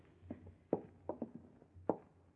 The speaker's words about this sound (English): Why, I thought I heard footsteps in the hall.